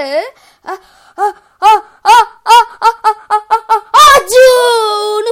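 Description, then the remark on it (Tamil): A storyteller's voice imitates the big sneeze of the story character Gajapathi Kulapathi: a string of quick, rising, breathy gasps builds up, then bursts into one loud, drawn-out explosive sneeze, prominent with nothing else underneath. “பாலமா தும்மிடுச்சான் அவ்வளவுதான் பலக்காரம் வச்சிருந்த பழம் எல்லாம் பறந்து போச்சு”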